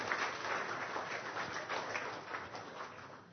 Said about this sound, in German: Äh, Applaus für unsere zwei Schauspieler.